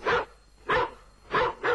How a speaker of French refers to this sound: Le chien là, boyer, lui il lui il a boyé quoi